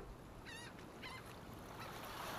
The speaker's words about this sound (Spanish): Ahora vas a concentrarte en las gaviotas que se aproximan.